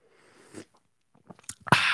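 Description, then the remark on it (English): Someone takes a drink: a soft slurp and a few quick wet mouth clicks, then a loud, breathy exhale of satisfaction. No one speaks. “Ah, sip of the day.”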